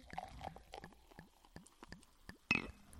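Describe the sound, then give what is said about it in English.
Prosecco is poured into a glass, with a steady run of quick glugging bubbles followed by a brief, sharp fizzing burst near the end. No one speaks. “Anticipation cork pop and the pour.”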